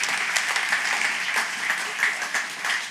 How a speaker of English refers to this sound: Thank you guys. Can we give these, these two versions of God a round of applause?